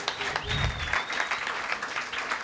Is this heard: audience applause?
yes